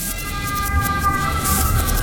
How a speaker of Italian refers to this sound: Ecco adesso passa l'ambulanza. Questa la senti però.